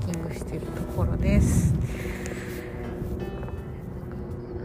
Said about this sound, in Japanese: ヘリコプターが飛んできたから音が入っているかもしれない